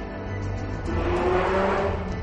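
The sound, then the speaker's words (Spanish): A car or motorbike roars past at full throttle, its engine revving loudly and rising in pitch as it accelerates, with no talking over it. “Típico gilipuertas acaba de pasar con el coche o la moto acelerando a tope, típico de verano.”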